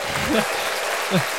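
Steady applause fills the whole stretch with a dense, even crackle of many clapping hands, while a couple of brief vocal sounds surface underneath it.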